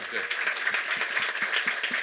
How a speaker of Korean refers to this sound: 아, 박수 한번 주세요.